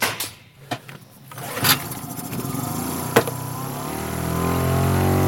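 A small 10 hp outboard motor on a small raft clatters and starts, then settles into a steady droning hum that grows slightly louder, with a few sharp knocks early on, on a river in the northern German lowlands near the Elbe.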